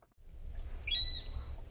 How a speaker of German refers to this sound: Dieses Geräusch würde der Biologe Lorenzo von Fersen gerne öfter aufzeichnen. Das hohe Pfeifen einer Seekuh. Deshalb sitzt er im Nürnberger Tiergarten vor dem Seekuhbecken. Ins Wasser hat er ein Hydrophon gehängt, also ein Unterwassermikrofon.